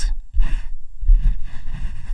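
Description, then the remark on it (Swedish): Textured scraping in two bursts, a short one followed by a longer continuous stretch, with a soft ASMR-like quality and no talking. “Det är när man lyssnar på saker som eh, låter så här rogivande Typ någon som skrapar.”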